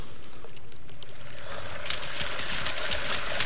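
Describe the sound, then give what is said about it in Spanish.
Sea water churns and splashes steadily, a broad rushing wash that swells louder and brighter halfway through, with no voices. “El mar se está agitando como si de él fuera salir un remolino.”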